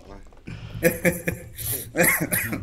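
A string of short, harsh coughs, several raspy bursts in quick succession, with throaty vocal sounds mixed between them.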